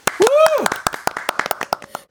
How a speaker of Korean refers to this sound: 좋습니다. 박수 박수 한번. 예.